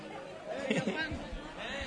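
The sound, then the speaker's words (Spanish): Busy crowd chatter near a bar on Calle Blanca Paloma, a dense babble of many overlapping voices at moderate loudness, with no single speaker standing out, as people eat and drink. “muy cerquita de la barra donde está todo el mundo comiendo y bebiendo.”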